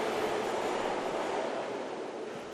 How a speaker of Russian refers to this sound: Я вышел из метро. На улице шел ливень.